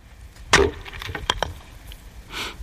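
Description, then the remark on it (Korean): Firewood being split with an axe: a loud sharp crack with splintering, followed by a few lighter woody knocks and a softer rustle at the end. No one speaks. “장작 패는 소리입니다.”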